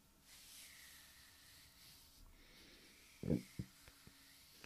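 Soft rubbing of a hand on the scalp makes a steady, breathy hiss that swells and fades like surf, followed by a few light bumps and taps near the end.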